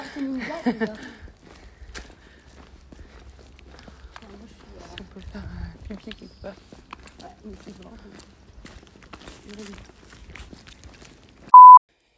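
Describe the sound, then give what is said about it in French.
A woman's brisk footsteps tap in a steady, quick rhythm outdoors as she walks while on the phone, with a voice speaking briefly at the start and in the middle, and a short electronic beep near the end. “là, je me suis mise à marcher comme une dingue.”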